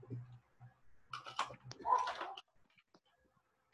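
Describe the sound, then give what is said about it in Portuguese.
Quiet handling as another pen is brought over: a burst of small clicks, taps and rustling scrapes over about a second, then a few faint isolated ticks as things settle. “Vou trazer aqui outra caneta aqui.”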